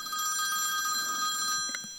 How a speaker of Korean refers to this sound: 잠깐만 전화 온 소리 들린다.